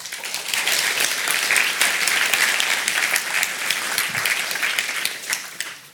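Sustained applause from an audience welcoming speaker Beate Roesler at a Radboud Reflect event, a dense steady wash of many hands clapping at full strength for several seconds before easing off slightly at the end, with no voices over it.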